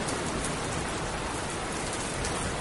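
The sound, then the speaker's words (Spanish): Steady rain pours down in a dense, continuous hiss with fine pattering drops, constant in level throughout, with no voices or other sounds. “La lluvia me pega en la cara.”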